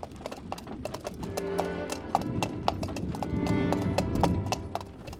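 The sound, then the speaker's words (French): A horse's hooves clip-clop steadily along a hard road in a regular trotting rhythm as its master urges it to trot a little faster, clear, with a low rumble of wheels or movement underneath and no talking. “On n'entend plus que la douce chanson de ses sabots.”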